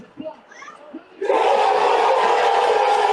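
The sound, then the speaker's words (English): A bar crowd at a viewing party erupts into a loud, sustained roar after a second of quieter murmuring and scattered voices, the dense cheering holding steady at full volume to the end. “That's louder than the Boston broadcast. I get goosebumps when I hear that. How how loud that bar was.”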